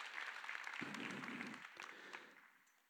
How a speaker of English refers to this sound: Yeah, let's, let's just applaud for God because this is who He is.